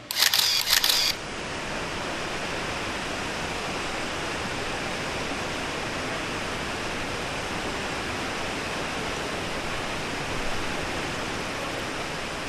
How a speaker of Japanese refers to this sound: それをまた振り返って滝を見るとね、ええ、ここでね豊かな水をこうたたえたこの大滝ね、はい、上から3本の筋が一つにまとまって下の岩肌にぶつかっていって、はいはい、それが白波となってどんどんどんどん流れを強くして降りてくる、この感じはすごいですね。